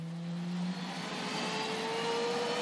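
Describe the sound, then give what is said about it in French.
A French Rafale fighter jet engine on an air-policing mission in Lithuania roars loudly and steadily, a broad rushing noise with a thin whining tone that slowly climbs in pitch, with no voices. “Mission en Lituanie pour quatre avions de chasse français.”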